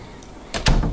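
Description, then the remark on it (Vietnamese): A door swings shut with a solid thud, followed by a short rattling clack as a man slides the bolt into place. No voices. “Ông Văn chốt cửa, cô ấy cũng quay vào buồng.”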